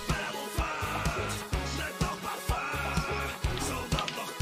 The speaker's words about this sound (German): Okay, Musik passt, Jungs.